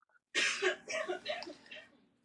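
After a moment of silence, a run of rough, breathy coughs bursts out in the background, four or five in a row that gradually fade and weaken.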